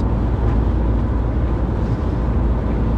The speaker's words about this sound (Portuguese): Este episódio está a ser gravado novamente dentro do carro, mas em viagem, Porto Coimbra, estou a voltar para casa, domingo à noite